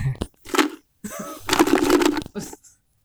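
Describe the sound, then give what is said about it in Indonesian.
Loud crunching of a crispy kerupuk mitoha (noodle cracker) in several bursts: a short crackle, then a longer stretch of brittle snapping and chewing, with a brief crunch at the end. “Mau dong nyobain kerupuknya.”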